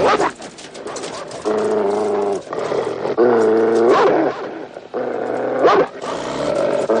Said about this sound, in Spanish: cuando de pronto descubre horrorizado que dentro del coche hay otro feroz pastor alemán.